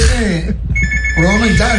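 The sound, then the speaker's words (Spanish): A telephone rings with a steady, high electronic tone that starts partway through and continues to the end while people talk over it. “Ahí está el teléfono”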